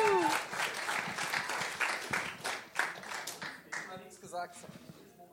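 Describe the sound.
A crowd applauds with steady, dense clapping for about five seconds, tapering slightly toward the end while a few voices rise over it.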